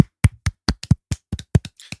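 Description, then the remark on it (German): Brisk hand clapping: about a dozen sharp, crisp claps over two seconds at a quick, slightly uneven pace, fairly loud, with no voices. “Geklatscht. Applaus.”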